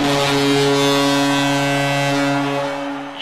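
A long, loud horn blast sounded as an ending signal, steady for about three seconds, deep and droning like a ship's foghorn, fading slightly at the end.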